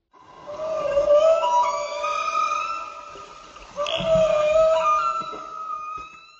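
Song of a male humpback whale at a marine national park in Bahia, Brazil: long, rising and falling tonal moans with rich harmonics, in two sustained phrases. Loud and heard alone, with no voices.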